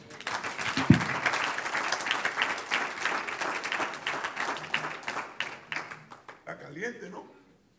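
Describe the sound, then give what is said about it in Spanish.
An audience bursts into sustained applause for the Lord during a church sermon on baptism, dense overlapping claps holding steady for several seconds before thinning out and fading, with a few voices murmuring near the end. “Un aplauso al Señor.”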